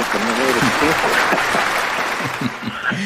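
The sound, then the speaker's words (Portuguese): Steady applause from a large audience at a live recording with the Frankfurt Radio Symphony Orchestra in Germany, a dense, continuous wash of clapping at a fairly loud, even level, with a few scattered voices and cheers rising over it. “E aí tem um aplauso aí, faz parte do show.”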